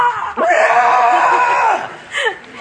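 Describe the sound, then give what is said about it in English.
A loud, sustained in-character vocal scream after stubbing a toe, lasting over a second, followed by a brief, quieter yelp-like burst shortly after. “and then you get to the point where it's like you you're so much into the character, you stub your toe, and then you instinctively scream”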